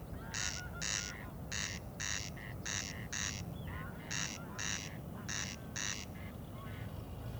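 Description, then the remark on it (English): Corncrake males calling at night during a survey to count them: dry, rasping double notes repeated in a steady rhythm, 'crex-crex' about five times, loud over a constant low rumbling background, with no voices. “Mm, I'm um, counting corncrakes, and the way you count them is by counting these calling males.”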